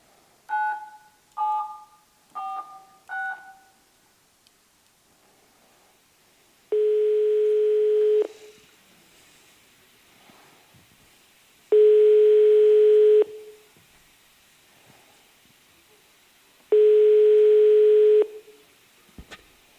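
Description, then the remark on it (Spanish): A few quick dialing tones, then a steady telephone ringback tone repeats three times in long, evenly spaced bursts with silence between. The call is placed to the holder of a drawn raffle ticket and goes unanswered. No one speaks. “Cinco llamadas y no han cogido.”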